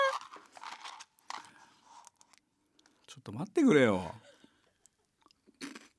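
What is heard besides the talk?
crunchy snack being chewed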